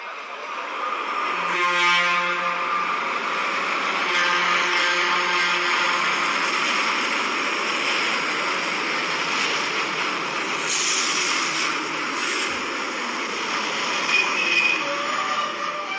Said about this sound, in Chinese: 火车终于来了，哀的发出一声好像叹气似的声音。哐当一下停了下来，是不是从很远的地方跑来累坏了呢？